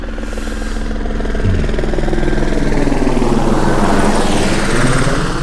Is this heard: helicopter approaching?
yes